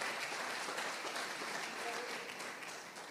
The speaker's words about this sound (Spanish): Dele fuertes palmas al Señor esta noche.